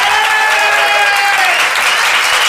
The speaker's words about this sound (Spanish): Estamos en el teatro que se llama Caras y Caretas. Muchísimas gracias a todos. Vamos a saludar con una ovación inolvidable